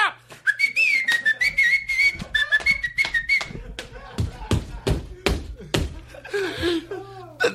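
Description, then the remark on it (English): Someone whistles a bright, wavering tune for a few seconds, then a run of sharp, loud claps or slaps follows in uneven bursts, with a faint background hum throughout. “I'm whistling to get the fucking. I'm pumping the crowd.”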